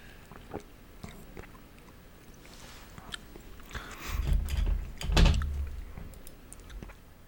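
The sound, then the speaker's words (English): Two wet slurping sips of wine after a few faint mouth clicks and taps, the second sip slightly louder. No talking. “Ooh, double sip.”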